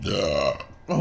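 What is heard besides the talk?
burp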